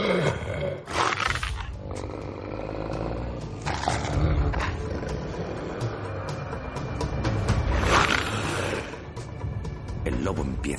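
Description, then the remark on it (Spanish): A large wolf growls loudly, deep rumbling snarls swelling and fading in repeated bursts over a low, continuous background rumble, as it approaches a boy crouched by a rock wall in the snow. “Un imponente lobo se aproxima al chico que está agazapado junto a una pared rocosa.”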